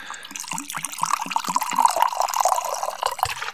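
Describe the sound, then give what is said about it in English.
Whiskey glugs out of a bottle in a steady rhythmic series of gurgles, fairly loud, the splashing liquid filling a glass with no voices over it. “Let's pour that into our mouths.”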